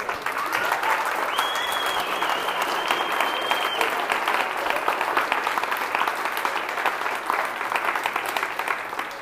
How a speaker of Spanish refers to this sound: ¿Por qué no aplauden así con todas sus ganas?